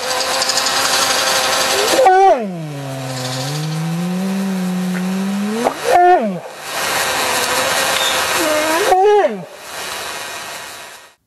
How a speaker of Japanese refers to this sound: これは熊の声です